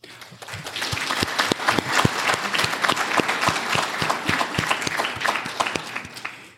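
A crowd breaks into steady applause, many hands clapping in a dense, fast patter that holds strong for several seconds before tapering off at the end.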